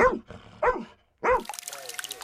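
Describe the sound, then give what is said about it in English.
A rescue dog named Joy, trained in Ukraine to search the wreckage of Russian strikes for survivors, barks three times in loud, spaced-out yelps, then a hissy, splashing background noise takes over with a faint steady whine underneath. “That includes the team that trains this rescue dog named Joy to comb through the wreckage of Russian strikes looking for survivors.”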